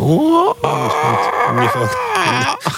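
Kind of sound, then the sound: vocal imitation, voice imitating a rooster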